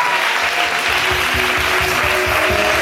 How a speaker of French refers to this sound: Laisse-toi donner une forte acclamation à Jésus.